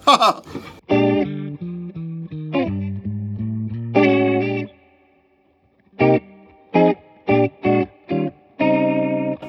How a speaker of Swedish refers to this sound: Vi pratade ju om Leslie. Vi kan lyssna ja. på... Jag tror du kan, det är mitt Leslie Sound som är på där på Honja, så det är bara att trycka... Act. Där kan du trycka, precis. Så. Ja, jag vad, vad dåligt jag spelar.